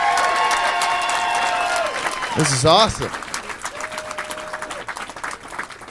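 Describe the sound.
A crowd applauds steadily with dense, continuous, loud clapping, while a person speaks briefly over it and a few cheers rise in the middle.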